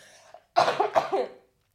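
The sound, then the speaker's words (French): A quick series of about three harsh coughs in close succession, fairly loud, from a person who says they are ill, with no talking around them. “attends, je vais tousser.”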